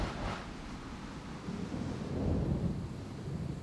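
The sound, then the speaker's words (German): Low, rolling thunder rumbles steadily with a soft hiss of rain, swelling slightly midway before easing off, no voices present. “Auch das Gewitter verstummt langsam.”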